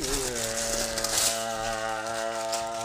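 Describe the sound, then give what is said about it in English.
Paper crumpling in a steady crackly rustle for about three seconds, moderately loud, with a sustained tonal hum running underneath. “Scrunkly paper sound.”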